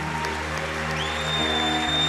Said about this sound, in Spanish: Dele fuerte ese aplauso al Señor. ¿Cuántos dicen amén? ¿Cuántos le pueden dar ese fuerte aplauso al Señor?